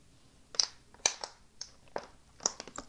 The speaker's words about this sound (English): I had to sip some water. My mouth is very dry.